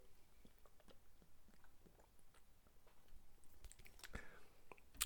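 sipping beer

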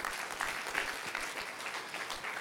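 audience applauding loudly

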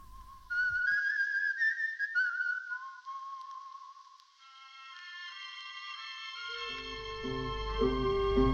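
whistled folk song melody

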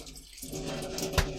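running water

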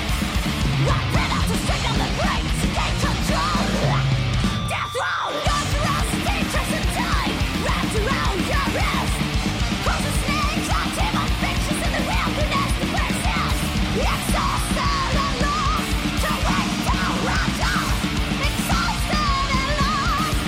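fast

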